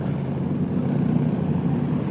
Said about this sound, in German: Die Motoren rollen langsam aus.